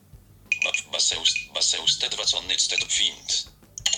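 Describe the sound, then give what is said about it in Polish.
A Baseus key finder on a set of keys, triggered with the Find button, beeps out a high-pitched electronic chirping pattern in quick, uneven bursts for about three seconds, pauses, then gives one more short beep. “Find możemy sobie, ja te klucze przyniosłem w końcu, przyniosłem, dobrze, mam, leżą obok mnie, yy, naciskam sobie przycisk Fint.”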